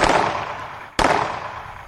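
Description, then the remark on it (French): Two loud explosive blasts about a second apart, each striking with a sharp crack and then trailing off in a broad, roaring rumble. No voices are heard. “Et puis, une déflagration assourdissante retentit.”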